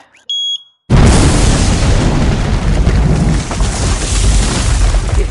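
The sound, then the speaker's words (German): A brief electronic beep, then a sudden, very loud explosion in Berlin's city centre that kills 17 people bursts in and dissolves into a heavy, roaring rumble that stays loud for several seconds. “Explosion hat 17 Menschen in der Berliner Innenstadt sofort getötet.”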